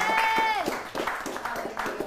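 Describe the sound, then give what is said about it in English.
An audience claps for the Lord together in a quick, steady rhythm, the claps sharp, opening briefly over a sustained high tone that fades after half a second. “I thought I would hear people clap for the Lord better.”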